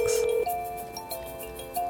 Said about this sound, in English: But then one night, the phone rings.